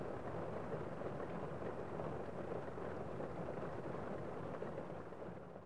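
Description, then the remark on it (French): Steady, dense rain roars without pause, a broad continuous wash of noise with a low rumble underneath, holding at an even level before easing slightly at the end, used as soothing white noise for sleep. No voices. “Certains des bruits blancs les plus populaires dans ce sens comprennent les sons de la pluie par exemple.”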